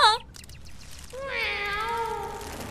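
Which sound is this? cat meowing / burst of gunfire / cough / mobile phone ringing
cat meowing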